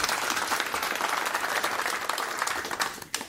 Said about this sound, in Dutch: Geef hem maar een applaus